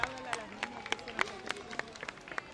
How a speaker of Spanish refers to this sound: Excelente. Y termina aquí su presentación en la viga. Fuerte el aplauso.